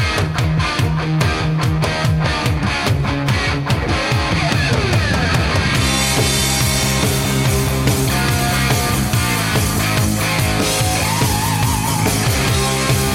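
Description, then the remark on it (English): A loud rock passage with a soaring electric guitar solo over a driving bass line and steady pounding drums, dense and continuous throughout, with no voices. “Again, as great as a solo as you can still hear that bass, you can hear those I drums.”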